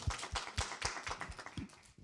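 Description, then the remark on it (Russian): A small audience applauds a team's presentation, with quick, steady claps blending together for a couple of seconds. It's fairly quiet, with no one speaking. “Аплодисменты.”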